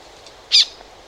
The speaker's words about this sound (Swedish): Och, eh, faktum är att vi stötte också en bekassin som jag lyckades spela in borta vid Jour. Mm. Eh, även det är en civilbeckasin.